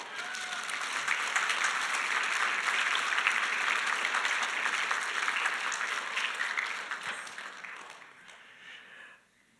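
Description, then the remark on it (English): Sustained applause from an audience for a couple celebrating 72 years together, a dense patter of many hands clapping at steady volume for several seconds before tapering off and fading out near the end. “Let's give them a round of applause.”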